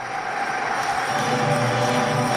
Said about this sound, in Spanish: Mientras la asamblea sigue aplaudiendo.